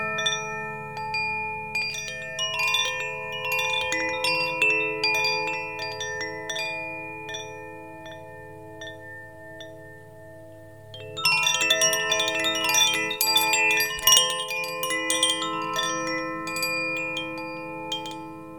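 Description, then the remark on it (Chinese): A Koshi wind chime, an instrument originating with a French artist, rings with overlapping, shimmering metallic tones that sustain and slowly fade. About halfway through, a fresh burst of bright, layered strikes swells back in. No voices. “下一个乐器呢，它是 Koshi 的风铃。”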